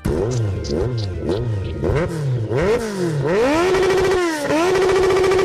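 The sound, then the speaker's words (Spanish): A motorcycle engine in the Amiga 500 motorcycle video game RVF Honda revs up in quick repeated climbs, each pitch sweep dropping as it shifts gear, then settles into a loud, steady high whine at full speed. “RVF Onda, otro juego mítico de motos.”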